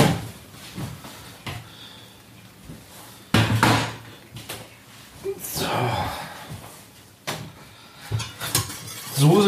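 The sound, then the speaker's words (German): Kitchen clatter of pots and metal utensils as boiled potatoes are drained at the sink, with sharp bangs and a sustained rushing, splashing stretch of water being poured off, fairly loud. “Kartoffeln abgießen. Zack, zack. Macht halt ein bisschen Krach.”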